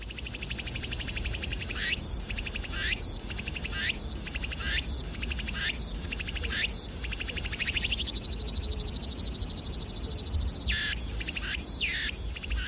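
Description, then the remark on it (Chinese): Bird calls in the Hongshulin mangrove forest near Tamsui: sharp, high notes repeat at a steady pace over a constant buzzing insect chorus, with a longer held tone partway through. No one speaks. “那接下来听的这个声音呢，就是红树林里的声音。”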